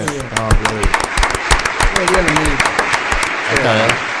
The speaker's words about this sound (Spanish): Así que bueno, esto me ha emocionado, quiero eh, realmente aplaudir a todos.